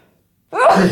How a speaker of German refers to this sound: Entschuldigung. Nochmal Gesundheit. Danke.